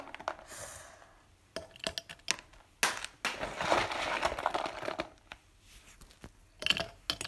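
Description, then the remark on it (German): Gummy bears drop and tumble, rattling in quick, irregular bursts, with crinkly rustling in between and a few sharper clicks near the end; no one speaks. “Aber wahrscheinlich hört ihr halt auch wirklich, ähm, äh, wie viele Bären mir einfach runterfallen.”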